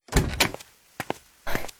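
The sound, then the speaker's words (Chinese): The door of a criminal investigation team captain's office being closed: a rattling, scraping push followed by two quick latch clicks and a final solid thud, with no voices. “陈红关好门，又往外瞅了瞅，确认没人后，才走到办公桌前”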